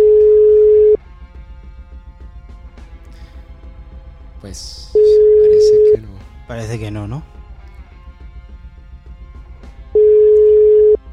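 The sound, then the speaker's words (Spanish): A steady electronic ringing tone repeats three times, each about a second long with long silent gaps, as an unanswered WhatsApp call rings out. People speak briefly between the rings. “Claro, esto es por WhatsApp, va, a tardar en... Nada, nada, nada, fracaso, fracaso, absoluto.”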